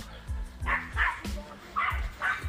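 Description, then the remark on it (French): Several dogs bark in a steady, overlapping string of about half a dozen sharp yaps, with faint voices in the background. “Il y a plein de chiens.”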